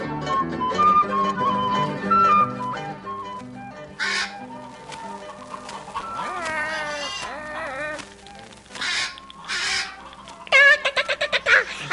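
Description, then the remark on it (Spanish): A parrot named Pedrito squawks and screeches in several loud bursts, some with wavering, warbling pitch and a rapid chattering run near the end, over a soft musical background. “Pedrito es un loro muy educado.”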